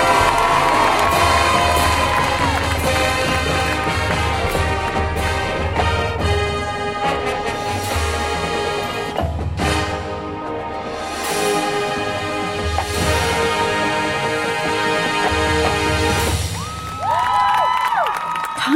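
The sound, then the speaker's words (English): A large stadium crowd cheers and shouts loudly and continuously as the Hickman High School Marching Band is welcomed to the field, with whoops and scattered high yells rising over a dense roar that swells and dips for nearly twenty seconds. “Ladies and gentlemen, please welcome to the field Hickman High School Marching Band.”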